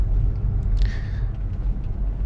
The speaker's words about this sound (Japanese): えー、ただいま、9月の17日深夜というか、18日早朝早朝じゃないか。えー、0時15分。えー、月曜日の、えー、非常に朝早い時間、えー、車を走らせています。